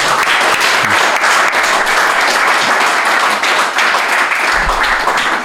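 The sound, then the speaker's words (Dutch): A crowd applauds steadily for several seconds, a dense, sustained wash of many hands clapping at once, loud and continuous without pauses. “een applaus voor Casper van der Meulen”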